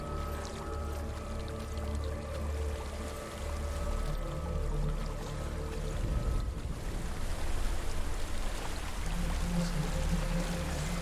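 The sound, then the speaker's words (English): A waterfall rushes steadily and loudly, a dense, continuous roar of water that holds for the whole stretch over a low droning hum, with no one speaking. “There's a waterfall.”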